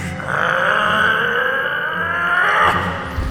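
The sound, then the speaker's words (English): The Monster King roars on regaining his freedom: one long, loud, rasping bellow lasting a couple of seconds, gritty and growling throughout before cutting off abruptly. “Regaining his freedom, the Monster King roared.”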